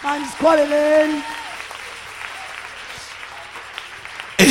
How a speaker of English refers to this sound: It's a sign that you're expecting a miracle tonight. Clap for yourself.